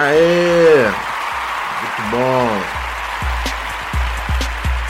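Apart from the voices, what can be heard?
applause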